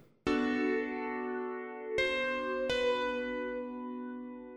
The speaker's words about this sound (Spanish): además de los platos de la batería que entran junto con un Hammond, un teclado que suena más o menos así.